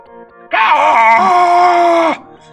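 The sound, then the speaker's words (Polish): A person lets out one loud, drawn-out cry imitating a screeching bird to test the echo, strained and wavering in pitch for about a second and a half before breaking off abruptly. “trochę udając głos krzyżącego ptaka”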